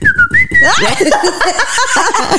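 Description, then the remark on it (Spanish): A person whistles a short, steady high note in answer to the whistle of the tunche, a spirit; the note slides briefly before being cut off by a burst of lively laughter from several people. “si te chifla el tunche, ¿qué haces? yo le respondo.”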